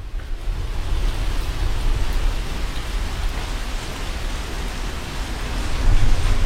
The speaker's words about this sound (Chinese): 看这雨下的啊，那就是春天的雨，是不是？